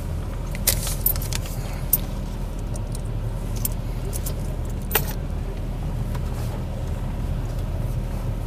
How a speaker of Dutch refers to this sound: Het is echt heel erg druk. Maar ja, het is zondag. Dus iedereen gaat natuurlijk auto wassen.